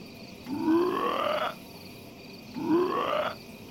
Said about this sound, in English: Oh! Oh my god. There's a frog in the apartment.